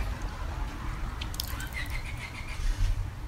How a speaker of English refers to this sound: drive a fucking car by your window every two seconds